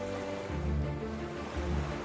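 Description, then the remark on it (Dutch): Surf of the shallow, subtropical Chalk Sea (Krijtzee) at Maastricht washing steadily, with two broad swells of waves rolling in about a second apart over a constant hiss of water; no voices. “En daar staan we dan nog steeds. In onze zwembroek in de Krijtzee in Maastricht.”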